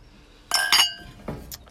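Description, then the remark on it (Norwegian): Two bright glass clinks ring out close together, followed by a softer knock and a faint third chime, like glasses touched in a toast, with no one speaking. “Så folkens, skål.”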